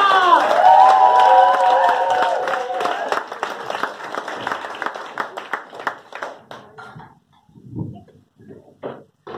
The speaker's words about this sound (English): There's only one final act, so please keep it going. Give all your love, all the clapping, more and more.